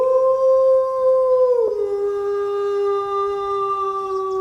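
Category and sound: sound effect, werewolf howl sound effect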